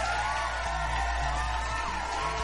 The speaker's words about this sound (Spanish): Un aplauso para despedirla.